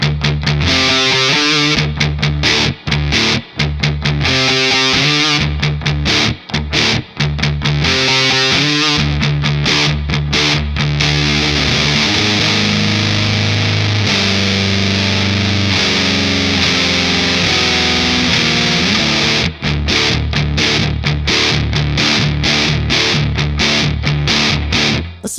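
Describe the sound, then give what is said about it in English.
A loud, thick fuzzed electric guitar (SG through an Analog Man BC108 Sunface fuzz, Surfy Bear Metal spring reverb and a Marshall SV28 Plexi with Celestion Vintage 30s) plays choppy stabbed chords at first, then settles into long sustained notes with shifting pitches, no voices present. “That's going to run into the Surfy Bear Metal and then that's going to run into a Marshall SV28 Plexi with uh, Celestion vintage 30s.”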